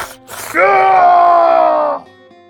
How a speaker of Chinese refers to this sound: 一声凄厉的惨叫声传遍了整个房间